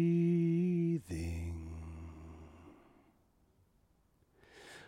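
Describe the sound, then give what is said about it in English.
A deep, full breath taken during a full embodiment (pranayama) breathing exercise: a long voiced exhale that breaks into a rushing sigh and fades out, then a fresh airy inhale begins at the end. “full embodiment breathing.”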